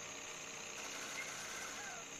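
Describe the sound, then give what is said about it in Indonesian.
A motorbike engine idles steadily, a continuous rumbling drone with a faint rattling texture that holds level throughout. “Ada motor.”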